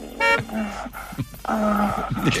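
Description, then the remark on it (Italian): A car horn honks twice, a short blast followed by a longer, sustained one, loud against a background of traffic noise. “Con il clacson di una macchina?”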